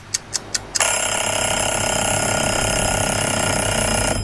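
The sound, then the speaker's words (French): A kitchen timer, started during the preparation of a pavlova, gives four quick, sharp ticks, then bursts into a loud, continuous metallic ringing that carries on steadily to the end, without any voices. “La préparation de la pavlova qu'on va accélérer en lançant le minuteur.”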